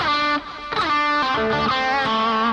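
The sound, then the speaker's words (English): Distorted electric guitar plays sustained notes that swoop and glide in pitch, a couple of loud, sweeping airplane-style slides with no talking over them. “Now you can do airplane slides going this way, and you can do airplane slides going this way.”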